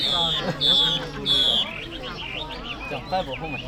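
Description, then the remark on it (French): Several small caged songbirds trill and whistle together at a bird market in Vietnam, their cages hung from tree branches. Three bright high notes ring out early, then a busy mix of chirps. A faint murmur of people talking sits underneath as locals sell, buy and compare the birds' songs. “des dizaines de cages sont accrochées aux branches. Il y a des petits oiseaux”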